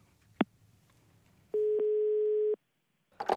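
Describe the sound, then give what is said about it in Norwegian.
One steady, buzzing telephone ringing tone lasting about a second, heard over a phone line on a call recorded on tape, preceded by a sharp click and followed by a brief rustle of handling noise. “Men forrige torsdag så ringte hun igjen, og denne gangen så fikk jeg det på bånd.”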